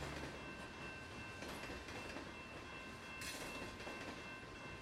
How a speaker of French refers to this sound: Beaucoup de trains passent par Kamloops, notamment des trains de cargaison qui transportent du charbon, du bois et des marchandises On attend les trains passer jour et nuit à Kamloops. Cela fait partie de notre paysage sonore quotidien.